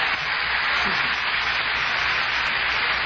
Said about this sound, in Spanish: Y ahí la portátil aplaudiendo.